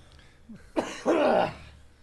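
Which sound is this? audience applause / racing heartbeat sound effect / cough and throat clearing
cough and throat clearing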